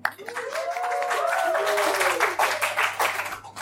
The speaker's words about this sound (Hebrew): מחיאות כפיים.